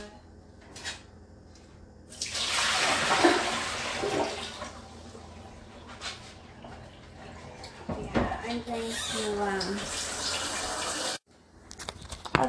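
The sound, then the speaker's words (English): Water runs steadily from a tap into a pot for about nine seconds for boiling red potatoes, a full rush whose tone rises as the vessel fills, then cuts off abruptly, followed by faint clattering. “so I just started boiling the water for the red potatoes.”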